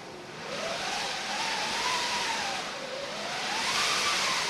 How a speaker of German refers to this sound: Das Tuch muss möglichst grobporig sein, damit es, wenn die runde Walze sich unter dem Tuch durchdreht, das Tuch ist festgehalten unten und gespannt, dann gibt es so ein Pfeifgeräusch.